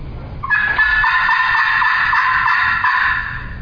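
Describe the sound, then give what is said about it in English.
A loud, sustained hen turkey call made by a hunter, a raspy run of yelps holding strong for about three seconds with no talking over it, aimed at a turkey about 55 to 60 yards away. “And promise you, if you call that loud the one that's that close, he'll start shaking and think there's a 900 pound hen on the other side of that.”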